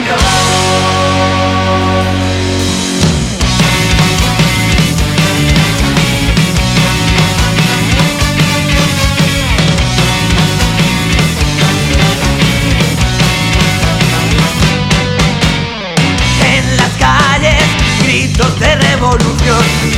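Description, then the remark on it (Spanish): A loud, upbeat Spanish protest song with vocals and rebellious lyrics, newly released on Spotify, plays continuously with a driving beat and dense full-band instrumentation, opening with sustained chords before the rhythm kicks in and briefly dropping out near the end. “Tiene mucha marcha y sus letras son reivindicativas.”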